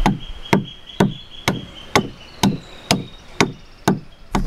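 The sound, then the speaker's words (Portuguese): A master canoe builder's adze chops into wood while carving a dugout canoe from a single log, in a steady rhythm: about nine sharp strikes roughly half a second apart, each with a dull woody thud and a brief ringing edge, with no voices. “Esse é o som do enxó na madeira.”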